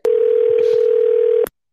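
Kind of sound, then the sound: signal or alarm, telephone ringing tone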